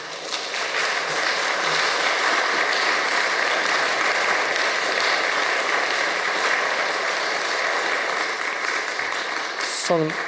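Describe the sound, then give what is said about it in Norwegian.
Sustained audience applause in Frosta church for the parish priest, a dense, steady crackle of many hands clapping at an even loudness for about ten seconds without any break. “Så gir vi en god applaus til sogneprest”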